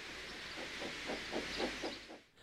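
Thomas the steam engine puffs away, rhythmic chuffs repeating about four times a second over a steady, loud hiss of steam, then cutting off abruptly near the end.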